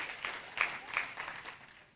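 An audience applauding softly, a scattering of uneven claps that rises in brief bursts and then tapers off over about two seconds, with no voices over it.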